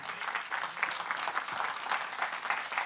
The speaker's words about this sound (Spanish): Dale un aplauso al Señor esta mañana.